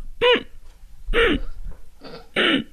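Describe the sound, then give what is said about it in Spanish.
A person imitates a strange snoring noise with four short, loud, hooting vocal bursts in quick succession, with near silence between them. “Hacer ruidos extraños. No solo es el ronquido. A ver, dame uno.”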